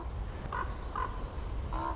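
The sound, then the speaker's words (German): Three short, ringing whistles of common goldeneye wings, spaced unevenly over a steady low rumble of outdoor background noise in an old, long-unmanaged mixed forest in the Schorfheide biosphere reserve. “Die Schellente höre ich klingen.”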